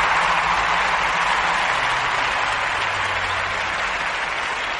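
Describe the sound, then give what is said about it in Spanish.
Steady, dense applause from a crowd, introducing the sponsors: many hands clapping at once in a continuous hiss-like wash that holds at an even, fairly loud level throughout, with no voices. “Y bueno, bueno, bueno, los aplausos son porque te quiero presentar a nuestros patrocinadores.”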